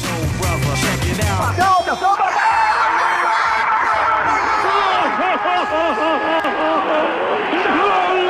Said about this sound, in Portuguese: E, e vamos começar então, solta a vinheta.